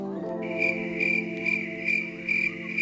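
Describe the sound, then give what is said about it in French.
A cricket chirping sound effect played from a sound gadget, in a steady pulsing rhythm, about two bursts per second, clear over a faint sustained tonal hum, with no voices. “on met des criquets.”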